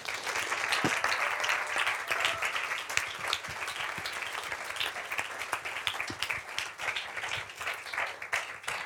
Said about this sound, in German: Lasst uns mit einem herzlichen Applaus das Team aus Cap begrüßen hier auf der Bühne. Schön, dass ihr da seid. Kommt vor.